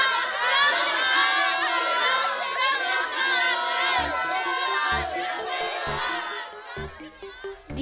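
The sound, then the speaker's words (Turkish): A crowd of townspeople shouts together that the king is naked, in a dense, continuous roar of many voices, some high-pitched like children, with rhythmic low thumps joining in toward the end. “Nihayet bütün halk Görmüyor musunuz? Hiçbir şey yok üstünde.”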